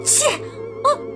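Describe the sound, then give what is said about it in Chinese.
A voice imitates two big sneezes of a piglet character with a cold as he runs home, each a sharp, hissy burst with a breathy vocal tail, the second one shorter and coming after a brief pause. “波波飞一溜烟儿的跑回家，把一个又一个大喷嚏。留在身后”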